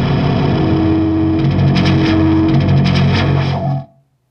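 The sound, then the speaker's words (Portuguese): A loud burst of crackling, warbling radio interference with distorted, buzzing tones and rhythmic pulses, lasting about four seconds before cutting off abruptly into silence. “Desculpem a interferência. Alguma nave deve ter passado por aqui.”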